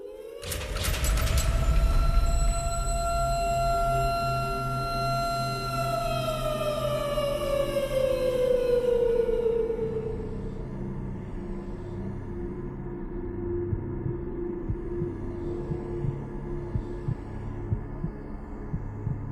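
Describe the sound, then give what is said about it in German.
Tense game soundtrack music with a loud, siren-like tone sliding slowly downward over a low, throbbing heartbeat pulse, then thinning into a dark, rumbling drone. No one speaks. “Jetzt ähm, läuft im Hintergrund ja ein Soundtrack.”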